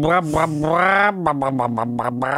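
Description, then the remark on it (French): A voice imitates a hen: one long, strained squawk followed by a rapid series of short, rhythmic clucks, loud and nasal. “Non, c'est une poule”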